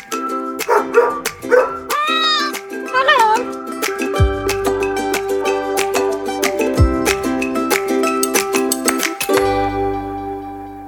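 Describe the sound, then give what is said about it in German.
A few short dog barks and yelps recorded in an office sound in the first seconds, mixed over a bright, steady music bed that continues alone afterward. “Natürlich auch wieder mit echten O-Tönen aus unserem Office.”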